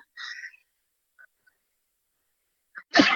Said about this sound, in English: excuse me, I sneezed then, excuse me.